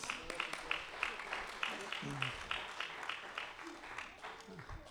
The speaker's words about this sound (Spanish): Un aplauso para los participantes.